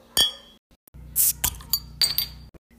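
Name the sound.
glass clinking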